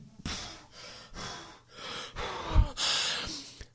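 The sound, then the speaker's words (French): A person mimics the out-of-breath panting of running a marathon, about six heavy, rapid breaths, with the last few growing louder and more strained. No one speaks. “Je fais un marathon, je suis essoufflé.”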